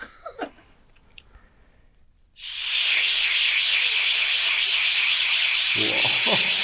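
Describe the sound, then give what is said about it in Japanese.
After a few quiet seconds, a person's voice launches into a loud, steady, hissing drone imitating a cicada's buzz, held unbroken for over four seconds. “で、そこまでたどり着いて、この放送を聞いたら、確かにセミとかをやってましたよ。”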